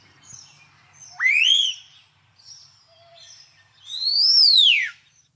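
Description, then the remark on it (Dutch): A starling gives two loud, sweeping whistles, each rising and then sliding down like a shrieking firework, separated by a brief pause with faint chirps in between. “Want je leest hier en daar ook dat ze een fluittoon maken. Een gillende keukenmeid wordt, wordt wel eens gezegd.”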